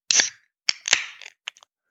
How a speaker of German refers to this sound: apropos hören, ich will dich nicht ungern unterbrechen, aber du kannst doch bestimmt am Geräusch hören, welches Bier ich jetzt öffne, oder?